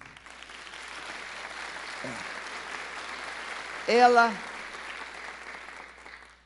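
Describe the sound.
A crowd claps steadily, a dense even patter of many hands that holds through the whole stretch, with a couple of brief voices breaking in over the applause.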